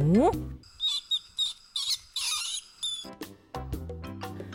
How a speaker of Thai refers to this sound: รายการนานาสัตว์สารพัดเสียงวันนี้จะไปรู้จักกับสัตว์ตัวน้อยที่มีทั้งความน่ารักแล้วก็น่าชังอยู่ในตัวค่ะ นั่นคือ หนู